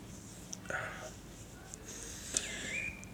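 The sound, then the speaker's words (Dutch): A bird chirps faintly outside, heard through an open sliding door on a sunny but not very warm spring day, giving a few short, scattered calls and a brief rising whistle over a quiet, airy background with a soft click partway through. “Ik hoop dat jullie een beetje die vogel kunnen horen.”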